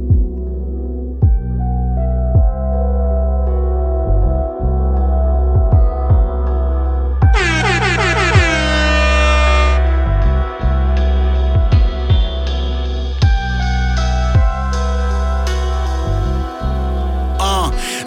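A hip-hop beat intro plays loud and upfront, with deep throbbing bass, steady punchy drum hits, and a bright shimmering synth flourish midway through, all instrumental with no vocals yet.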